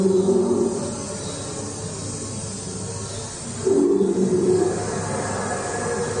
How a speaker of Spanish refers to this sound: Eso es una moto.